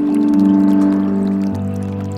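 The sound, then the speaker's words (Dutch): Steady rushing, splashing water runs under a loud, low humming drone that shifts down in pitch partway through; no voices. “Je zou er middenin gaan liggen, in de stroming. Rondom jou het spoelen van het water voelen, het krachtige reinigen.”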